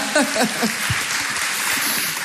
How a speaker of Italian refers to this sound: Applauso a scena aperta su questa.